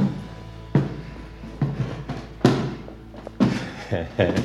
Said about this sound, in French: La porte est ouverte.